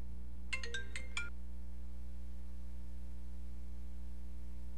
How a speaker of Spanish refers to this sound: Eh, ah, no, pues me está llamando al celular, te llamo de la emisora ahora mismo, te voy a llamar ahora.